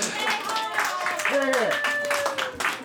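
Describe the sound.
A crowd applauds steadily, dense clapping filling the space with a few voices whooping and calling out over it.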